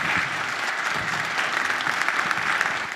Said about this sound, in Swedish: En varm applåd för Claes Östergren och Kerstin Wikse.